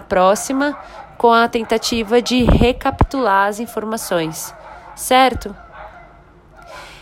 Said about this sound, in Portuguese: Tem um cachorro latindo ali atrás, porque, né? Afinal de contas, a cidade, apesar do isolamento, os animais precisam dar os seus passeios.